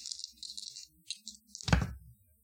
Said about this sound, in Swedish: Okej, okay, jag bränner tre. Mm, då slår du tre extra tärningar, sju eller lägre.